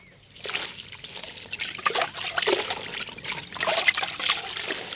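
Water trickles and drips steadily as a small wet skein of white, naturally coloured yarn, taken from a bucket of water, is squeezed and wrung out, with irregular splashy dribbles continuing for several seconds and no talking.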